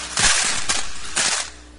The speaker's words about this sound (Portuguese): Aquele pessoal, eles tinham várias cornetas daquela de metal afuniladas e as pessoas chegavam ali e jogavam as suas ofertas. O barulho era mais ou menos esse. É isso que acontecia. 13. E as pessoas jogando as moedas.